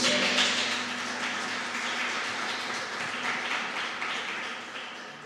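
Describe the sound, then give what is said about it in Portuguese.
An audience claps loudly and steadily, applauding Jesus during a sermon: a dense wash of applause for several seconds, with a faint low hum underneath and no one speaking. “E se tem alguém aqui que quer isso para sua vida, aplauda Jesus bem alto, gente.”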